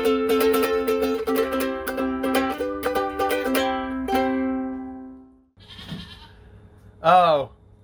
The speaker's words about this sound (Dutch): geitje.